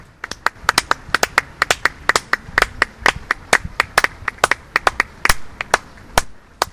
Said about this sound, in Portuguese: Vamos também aplaudi-lo.